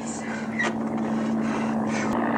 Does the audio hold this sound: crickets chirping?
no